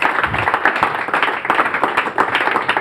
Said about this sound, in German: Hey, ein Applaus. Sehr schön. Also gut.